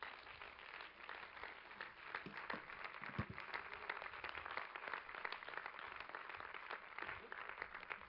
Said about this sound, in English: Let's clap our hands and rejoice in that.